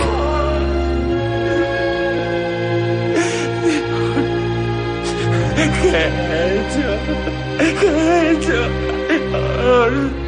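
A man sobs and whimpers in grief over his dead brother's body, his broken cries rising in uneven bursts over a low, sustained musical drone that fills the background.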